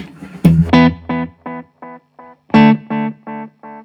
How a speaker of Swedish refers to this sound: Och, och här, du har ju moddat det här delayet. Ja, och det är lite mindre botten i studsarna och lite brightare studsarna än ja, originalet.